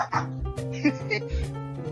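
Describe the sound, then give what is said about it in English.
A dog named Buster barks a few times in short, sharp bursts over a steady humming tonal background that continues throughout. “Me and my dog Buster really love listening to Israel News Talk Radio.”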